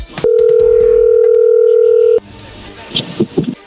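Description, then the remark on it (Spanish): A telephone dial tone hums steadily and loudly for about two seconds, then cuts off, followed by a few faint, brief beeps and clicks of a number being dialed to call Michelle. “Bueno, vamos a llamarle a Michelle, vamos a ver si te manda los chocolates a ti o a alguien más, vamos a ver si de verdad te quiere como dice.”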